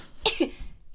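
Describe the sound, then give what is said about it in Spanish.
A single sneeze: a sharp, hissy burst quickly followed by a lower, voiced tail, then near silence with faint background noise. “Salud.”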